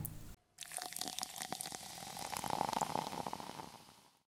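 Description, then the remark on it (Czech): A drink is poured into a glass to top it up, a steady splashing stream lasting about four seconds, its tone rising slightly as the glass fills, with no talking. “Tady kapku doleju.”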